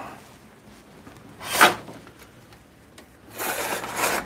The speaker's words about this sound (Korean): 자 커튼 좀 칠게요.